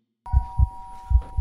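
doorbell ringing

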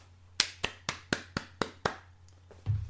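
hand clapping

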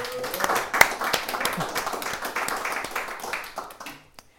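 audience applause

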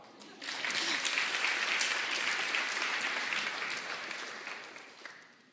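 audience applause

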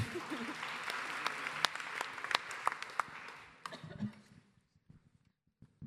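applause

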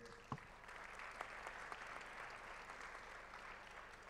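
audience applause

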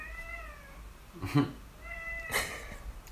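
cat meowing

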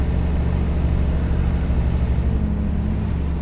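truck engine rumbling

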